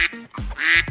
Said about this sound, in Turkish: O ses ne hocam? Ördek mi var orada? Ee, vakvaklar ürktü biraz da. Buranın vak ürkek. Neyse böyle ikide bir ürküyorlar.